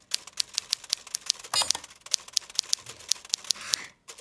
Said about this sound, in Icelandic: Já, hvernig vél? Takkavél. Já, takkavél. Stafavél. Stafavél. Rít, rítvél. takkavél, stafavél, rítvél.